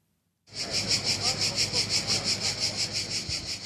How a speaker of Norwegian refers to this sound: Etter at den brennende sola har gått ned, er det lyden av grashopper som er den mest overdøyvende.